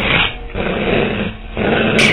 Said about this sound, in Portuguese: todos dão de cara com um lobo que parece muito raivoso.